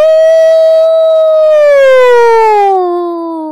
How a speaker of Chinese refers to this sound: 什么啊？对了，是会救火的消防车。